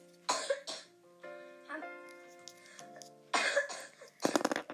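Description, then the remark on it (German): Several loud coughs in quick bursts, with a wet, raspy quality, separated by brief pauses where a faint tonal hum lingers in the background. “Ich denke mir nur so, wieso, wieso, niesig und äh, ich meine hustig und Schnupfwinkel die ganze Zeit in der Jacke rum?”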